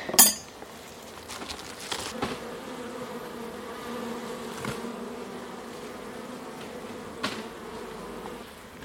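A steady, dense drone of honeybees buzzing continuously around an opened hive, broken by a few sharp clicks and knocks of equipment.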